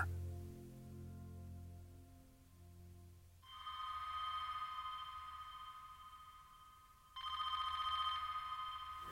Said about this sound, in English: I dreamed a telephone was ringing, only to find it to be real.